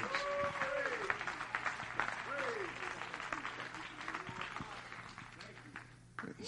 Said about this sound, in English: Come on, clap your hands and let's give him praise.